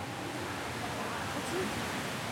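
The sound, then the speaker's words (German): Steady, diffuse wash of water noise filling an indoor thermal swimming pool hall in Hersbruck, Germany, as two women walk slowly through hip-deep water in the non-swimmer pool; a constant soft splashing hiss with no distinct individual splashes, fairly quiet and even throughout. “Die Sozialpädagogin hat die Syrerin fest an der Hand und geht mit ihr langsam durchs Nichtschwimmerbecken.”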